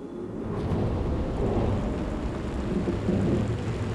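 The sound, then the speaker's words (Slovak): A heavy storm roars steadily, with dense pouring rain and deep rumbling wind filling the sound, loud and continuous for the whole stretch with no voices. “Potom sa odrazu nebesá zatemnili, zdvihol sa silný vietor a začali sa vody valiť na zem.”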